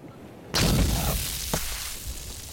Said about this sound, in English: That sound, Frylock exploding Lost Brangeles, and the explosion serves as the transition into the next scene where they are yet again, we're five for five, debriefing in the pool.